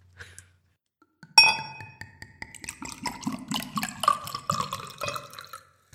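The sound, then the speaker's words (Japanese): Red wine glugs from a bottle into a glass, opening with a bright clink followed by a steady gurgling, bubbling pour with rhythmic glugs, clear, with no talking. “赤ワインをいただいております”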